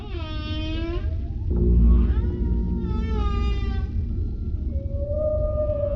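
A gray whale vocalizes in a series of tonal moans and rising, warbling calls with rich harmonics, set over a steady low underwater rumble, with a brief louder thump partway through; no one speaks.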